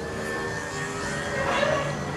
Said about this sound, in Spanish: disculpa la moto. Lo que tiene que en la calle.